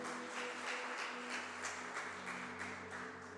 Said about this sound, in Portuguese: Vamos aplaudir a Jesus?